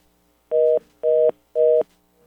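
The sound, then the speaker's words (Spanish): Three short, evenly spaced telephone tone beeps, loud and steady in pitch, sound alone with brief silences between them, like the tone after a call drops. “Eh, y, soy yo lo que dije, que escuché que se cayó una llamada.”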